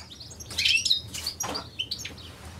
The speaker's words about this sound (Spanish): Se estaban oyendo unos pájaros mientras, mientras hablaba ….